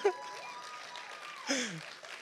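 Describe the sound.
A church audience claps for the Lord steadily in a sustained burst of applause, with a few voices calling out over the clapping, at moderate loudness.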